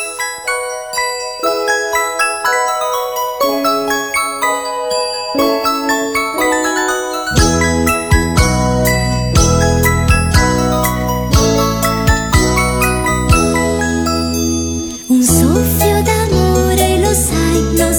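An upbeat instrumental anime theme song intro, played at number 4 on a Radio Animati countdown, opens with bright, tinkling chime-like melody notes, then a fuller band with bass and drums kicks in and builds louder. No singing or talking yet.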